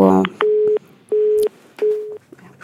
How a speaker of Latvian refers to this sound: Jā, paldies zvanītājiem. Zvans pārtrūka, bet, bet nu jā, paldies par jautājumiem.